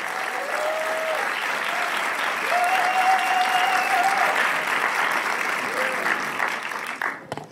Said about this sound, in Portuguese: Vamos receber o pastor Roberto com uma forte salva de palmas em nome de Jesus.